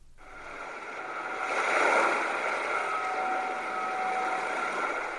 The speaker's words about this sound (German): Dann hört man Wellenrauschen. Es symbolisiert das Meer, das die Insel vom Festland trennt.